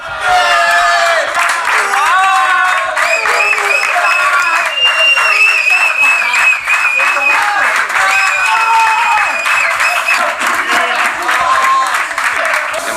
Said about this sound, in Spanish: fue el último en llegar al vestuario y fíjate este sonido, la que se lió con la llegada al vestuario de Luca Modric.